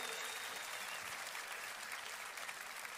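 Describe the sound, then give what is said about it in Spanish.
An audience at the FMS Internacional competition applauds both competitors steadily throughout, a dense, continuous wash of many hands with no breaks and no voices standing out above it. “Así que un fuerte aplauso para los dos, damas y caballeros. Fuertes aplausos.”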